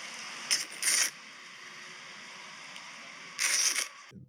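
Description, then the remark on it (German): A spoon scraping across hard, icy scraping ice cream (Kratzeis), a kind of ice cream eaten only by scraping: two short gritty scrapes close together, a long pause, then one longer scrape, fairly quiet with no voices. “Weil das ist ein Eis, das Kratzeis. man nur so essen kann.”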